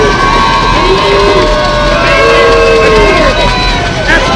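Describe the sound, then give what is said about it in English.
A rowdy crowd of baseball fans at Garland House Field cheers, shouts and stomps nonstop, a loud, dense wall of voices with whoops and yells rising above it, filling the whole stretch. “They are loud and stomping, and they are right behind the Rabbits”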